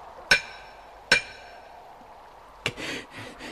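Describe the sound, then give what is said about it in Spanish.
Three sharp metallic strikes of a hammer on a nail set against a hard stone slab ring out, two bright clanging hits with a lingering tone followed by a duller third blow and a brief scrape, fairly loud, with no voices. “Sospecho que el martillazo retumbará en su cabeza. Dios, la losa está dura. Tendré que golpear más fuerte.”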